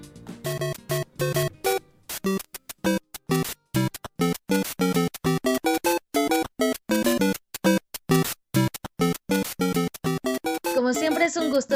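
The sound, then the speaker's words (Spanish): Rapid, bright electronic bleeps and blips in a choppy staccato sequence, like retro video game sound effects, ending in a warbling, wobbly synth tone. No one speaks. “Ese sonido que escucharon seguramente los transportó a algún videojuego, ¿cierto?”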